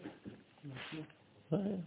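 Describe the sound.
A man's voice imitates a dog barking, two short voiced 'woof' sounds spaced about a second apart, the second one louder, delivered close and clear with no other sounds.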